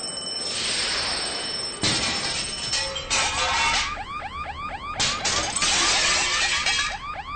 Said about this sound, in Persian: در این لحظه آژیر خطر هتل به صدا در میآید و صدای شکستن شیشه از بیرون هتل به گوش می رسد.